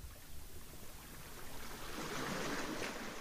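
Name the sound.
sea waves ambience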